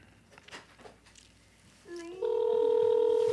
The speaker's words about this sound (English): Yeah, cuz I'm pressing star six seven, so so it's a blocked number. Um but I forgot that was not the area code. So I forgot the area code. Um it's hard to talk and dial this shit.